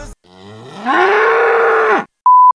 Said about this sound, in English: And without further ado, let's hit it with a moo.